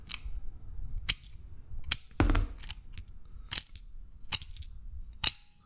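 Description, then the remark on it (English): Cartridges being unloaded one by one from an HK pistol magazine: a series of sharp, bright metallic clicks and snaps at an uneven pace, each with a brief ring, over a low background rumble. “This is this is what it sounds like when you unload an HK magazine.”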